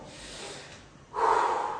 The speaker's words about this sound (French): on respire, et on s'en fout qu'on voit qu'on respire, et alors, c'est la vérité.